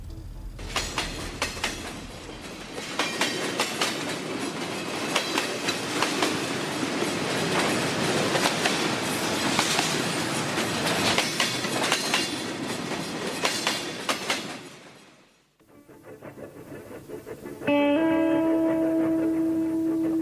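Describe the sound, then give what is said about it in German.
A train on a long-distance journey from Berlin via Moscow to Abakan rolls along with a loud clickety-clack of wheels on rail joints for about fifteen seconds, then the clatter drops away and a steady tonal hum takes over. “Und ähm, es war die längste Bahnfahrt meines Lebens.”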